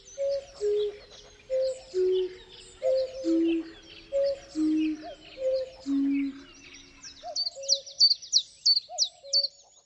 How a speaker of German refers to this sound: Jeden Frühling ist der Zilpzalp einer der ersten Zugvögel, die nach Deutschland zurückkehren ein unglaublich präsenter Vogel, laut zu hören und super einfach zu erkennen. Eigentlich.